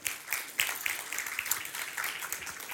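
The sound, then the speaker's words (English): Steady applause from a church audience during a morning service, a dense patter of many hands clapping at once, fairly quiet and continuous without any voices. “a hand clap this morning.”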